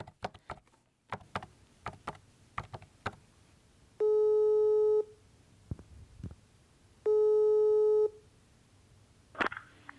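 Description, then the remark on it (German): Two long, steady electronic ringback tones of an outgoing phone call to a friend, each about a second long with a harmonic-rich buzz, separated by a pause, while scattered clicks and small tapping noises sound in between. “Weil ich so gar nicht weiterkomme, telefoniere ich mal mit meiner Freundin”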